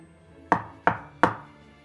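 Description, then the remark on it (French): Three sharp knocks on the door of a house, evenly spaced and fairly loud, each a quick thud with a short ringing decay, over a faint steady background hum. “L'ange tapa trois fois à la porte.”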